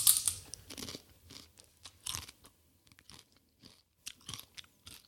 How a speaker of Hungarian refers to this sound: egy pár másodpercre menj arrébb, mert csámcsogás következik. De mi ez? Nem tudom megalapítani. Van benne Zeller, Pasternák,